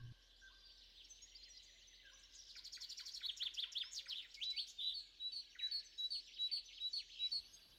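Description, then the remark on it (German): Birds sing continuously, with quick bright chirps and trills layered over each other, a lively outdoor chorus that grows busier after the first few seconds. No one speaks. “Wie wunderschön, sagte er und starrte in völliger Verzückung die Blumen an, genoss den Gesang der Vögel und das Zirpen der Grillen, das Summen der Bienen, den Duft der Blüten und den warmen Hauch des Windes.”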